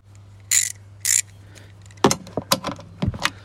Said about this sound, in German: Und dementsprechend hole ich mir gerade mal meinen Knarrenkasten hier und dann schauen wir mal.